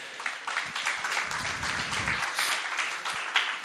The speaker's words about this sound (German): Applaus für die drei.